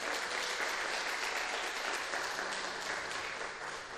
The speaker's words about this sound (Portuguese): Amém? Glória a Deus. Dá uma salva de palmas a Jesus por isso.